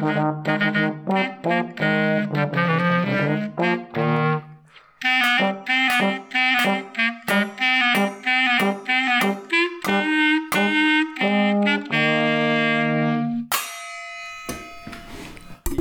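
A clarinet and trombone play the Radetzky March by Johann Strauss, with a pot lid also played, in loud, punchy repeated notes with a steady rhythm, no voices, ending in a bright, noisy flourish.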